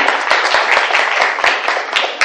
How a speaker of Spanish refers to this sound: Denle un aplauso a estas abuelitas, por favor. Muy bien.